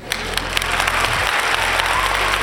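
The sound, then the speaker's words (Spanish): A crowd applauds in a steady, dense wash of clapping that stays loud and even throughout, with faint murmurs and a low hum underneath. “Aplauso, por favor.”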